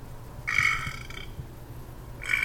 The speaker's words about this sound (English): it was like an amusement park ride but it's real and the dangers were real and i was behind the steering wheel of that car basically like going ah and burping ah!